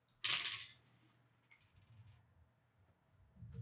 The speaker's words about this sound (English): Here on the Warhammer side of things, we will be rolling, as always, four dice Difficulty two, as always.